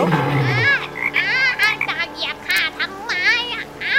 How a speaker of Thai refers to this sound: ในขณะที่สิงโตได้เดินไปเดินมาอยู่นั้น กบตัวหนึ่งได้กระโดดออกมาจากที่หนองน้ำและส่งเสียงร้อง